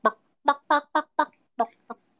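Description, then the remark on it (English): A person imitates a chicken with about seven short, voiced clucks in a quick, uneven rhythm, clear, the last couple softer. “or whatever noises chickens make.”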